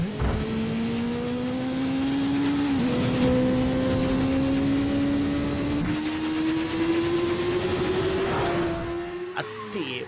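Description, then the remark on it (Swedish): A motorcycle engine drones steadily and climbs slowly in pitch as it rides through an echoing tunnel, with a few airy whooshes every few seconds as it passes posts, ending in a brief rattle. “Han åker motorcykel genom en tunnel där och det swishas här från de här stolparna.”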